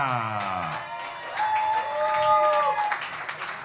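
Steady audience applause of many hands clapping for several seconds as a rock band is welcomed, with a thin, wavering whistle-like tone rising and fading over the clatter partway through.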